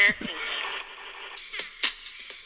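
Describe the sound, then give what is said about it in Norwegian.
Tinny electronic dance music plays through a small phone speaker, thin and bass-less, with sustained synth tones and a run of sharp, evenly spaced beats toward the end. “Og nå er det fra mobilhøyttaler, så du hører jo ikke”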